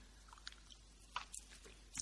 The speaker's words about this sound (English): I'm going to take a sip of my tea here.